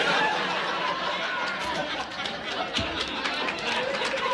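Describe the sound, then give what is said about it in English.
Steady crowd chatter, a dense wash of many overlapping voices murmuring at once, holding an even, moderate level throughout with occasional faint laughs rising out of the babble. “Quiet down, crowd.”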